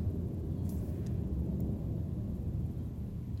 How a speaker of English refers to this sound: Um, sorry if you hear a plane above right now. My window's open and I'm kind of like I'm speaking outside of my window, so that's why if you hear like weird outside noises i think it's relaxing though